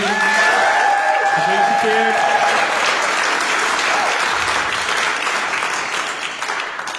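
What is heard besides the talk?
audience applause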